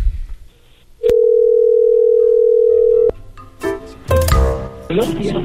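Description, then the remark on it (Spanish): A telephone dial tone on an outgoing call to a taxi stand: one loud, steady mid-pitched hum lasting about two seconds, cut off abruptly and followed by clicks and muffled handling noises. “Esta es la llamada a un taxi al sitio,”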